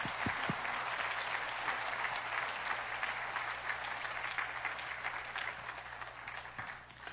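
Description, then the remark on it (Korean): An audience applauds steadily for about seven seconds in support of the elementary department ministry team serving the children, a dense, even wash of clapping from many hands that gradually thins toward the end, with no one speaking over it. “우리 드림팀 초등부 팀 계속해서 우리 자녀들을 위해서 아름다운 사역 감당할 수 있도록 우리 한번 다시 한번 박수 한번 부탁드리겠습니다.”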